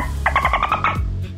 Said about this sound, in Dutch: Dolfijnen maken een soort klikgeluid, hè? dat klinkt zo.